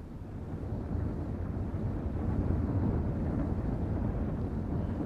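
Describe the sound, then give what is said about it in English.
A steady, dense churning rumble of four rotating spindles, two on each side of the track, flinging strips of blanket cloth that flail dirt off steel railway coaches at the Willesden carriage sidings, heard from inside a coach; loud, with a continuous low-pitched roar and no voices. “As they whirl round, strips of blanket cloth fly out and flail the dirt off the steel coaches.”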